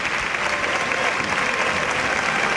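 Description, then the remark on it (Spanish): A bullring crowd stands and applauds banderillero Fernando Sánchez after a good pair of banderillas, a dense, even wash of clapping hands that stays loud and continuous throughout without any break. “Pues el público que se pone en pie para aplaudir a Fernando Sánchez.”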